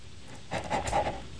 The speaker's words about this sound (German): Hallo? Oh, da hechelt einer, oder?